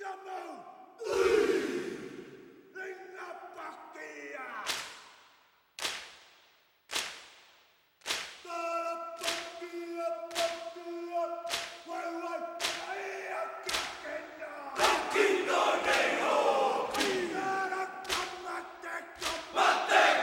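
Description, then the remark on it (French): The New Zealand All Blacks rugby team's pre-match haka war chant: a group of men shouting and chanting forcefully in unison, punctuated by sharp slaps and stamps, with a stadium crowd roaring in the background. “Ce qui va être surtout difficile à gérer, c'est l'avant-match entre hymnes nationaux et Aka, Aka le célèbre, la célèbre démonstration de force des Blacks.”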